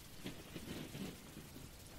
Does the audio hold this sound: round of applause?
no